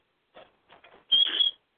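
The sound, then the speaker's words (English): A pet bird gives a few short, scratchy chirps, then a loud, piercing screech with a sharp whistle on top, without any talking. “They get screechy when they're grumpy.”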